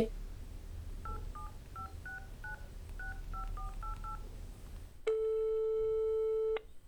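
A quick run of about ten short touch-tone beeps as a phone number is dialed, followed by a single loud, steady ringing tone lasting about a second and a half over low background hum.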